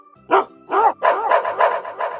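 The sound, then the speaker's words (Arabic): Village dogs that smelled a strange bear bark as they run at it, a rapid, overlapping series of about six loud barks with no talking, sounding like several excited dogs at once. “لكن كلاب القرية شموا ريحة الدب الغريب وجريوا عليه من كل مكان”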